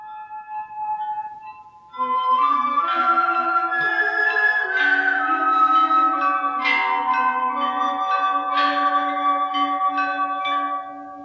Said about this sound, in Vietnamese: Các bạn thân mến, các bạn đang nghe là bản nhạc được diễn tấu bằng giàn chuông và giàn nhạc dân tộc khác. Giàn chuông gồm một số chuông lớn nhỏ khác nhau, treo theo thứ tự trên một bộ khung gỗ, hình thành một bộ hoặc vài bộ.